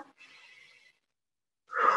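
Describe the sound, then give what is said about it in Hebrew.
A soft, drawn-out deep inhale is followed by a pause, then a louder, breathy exhale like a sigh, taken during a guided meditation while breathing into the belly. No one speaks. “איפה שהמולקולה הזאת כבר השתנתה, אתם לוקחים נשימה עמוקה לשם, ועוד לא נשימה עמוקה לשם,”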